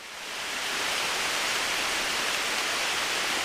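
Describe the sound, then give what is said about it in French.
A sudden tropical downpour in a forest: dense, steady hiss of heavy rain swelling up within the first second, then pouring evenly and loudly with no voices. “Dans la forêt, la pluie commence à tomber. Un de ces déluges qui arrive sans prévenir et qui repart aussi vite.”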